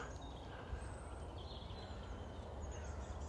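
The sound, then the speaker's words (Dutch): A bird calls faintly, its thin, wavering notes drifting over a steady low rumble of background noise, with no talking. “Ik hoor een vogel.”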